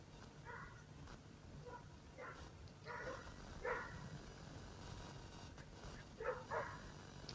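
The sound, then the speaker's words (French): Dogs bark in scattered short bursts, a few yaps clustered together then a pause, fairly quiet over a steady low background rumble. “on peut écouter une autre chanson de, de … en attendant que les chiens euh, aient fini leur petit moment”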